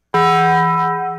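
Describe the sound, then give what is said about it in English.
A single loud, resonant bong, the Taco Bell sound effect, rings out suddenly like a deep bell chime, its rich tone holding steady for about a second before starting to fade. No voices. “Taco Bell will be the yeah. Uh, the bong noise that we use uh, for the bell.”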